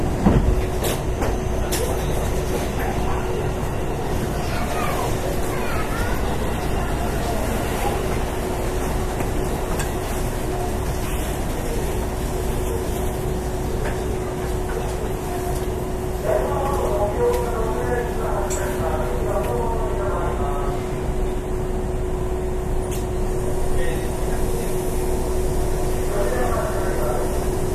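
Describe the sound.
A Hankyu 8000 series electric train, running as a Kobe Line limited express from Shinkaichi to Umeda, runs steadily, its low rolling rumble joined by a constant motor hum, with muffled passenger voices murmuring underneath throughout.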